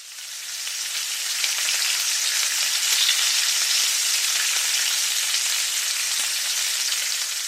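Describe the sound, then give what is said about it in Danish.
Bacon sizzling steadily in a pan, a dense crackling hiss with scattered pops, fairly loud throughout, with no voices. “Troede du, for det er lyden af bacon, der steger på en pande, som jeg har fundet på YouTube.”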